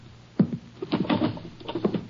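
Clattering rummaging noises as drawers are searched: a drawer slides open with a sharp knock, followed by scattered bumps and scrapes of items being shuffled around inside, no voices present.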